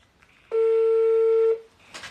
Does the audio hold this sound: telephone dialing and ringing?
yes